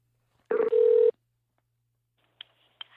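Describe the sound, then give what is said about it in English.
A single ring from an outgoing phone call to an author being called as a guest: one short, steady, buzzy tone lasting about half a second, then quiet broken only by a couple of faint clicks. No one speaks. “Let's give her a buzz.”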